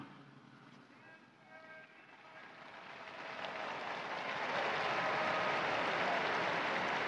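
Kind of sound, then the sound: crowd, crowd applause and cheering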